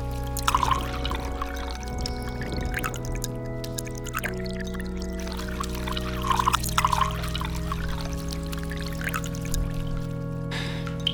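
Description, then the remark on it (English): Coffee pours steadily, a continuous splashing trickle lasting several seconds over a low, sustained tonal hum in the background, as it is poured over the tips of open-toed sandals. “Mary gasped open mouthed at this, and Ruth quickly poured the coffee over the tips of Mary's open toed sandals.”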